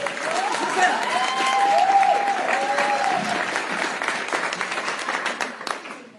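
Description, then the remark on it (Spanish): An audience breaks into sustained applause, dense clapping filling the whole stretch at a steady loud level, with a few faint whistling or cheering tones rising above it early on. “¿Un aplauso y así?”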